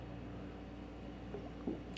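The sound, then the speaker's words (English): Soft sipping of water against a low background hum, with a couple of small wet slurps and a gulp near the end. No one speaks. “I'm gonna take a little drink of water.”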